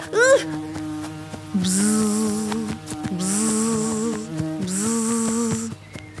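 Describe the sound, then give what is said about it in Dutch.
A bee buzzes in a wavering drone in three sustained passes that rise and dip in pitch, layered over a steady tonal background with a hissy high edge. “Rondjes en rondjes voor een zoemend bijtje uit.”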